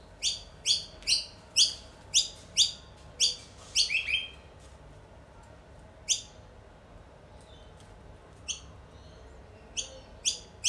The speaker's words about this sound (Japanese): はいということでちょっとねこのまましばらく鳥さんの声を聞きながらお別れしたいと思います。